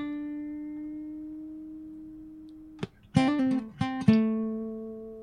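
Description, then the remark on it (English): A long sustained electric guitar note rings out and fades, then a short bluesy riff follows: a few quick plucked notes with slides before a final note held to the end. The riff is played by someone seated in a chair. “we make people play riffs just in the worst chair for riffing.”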